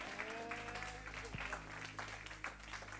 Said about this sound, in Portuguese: Aplauda!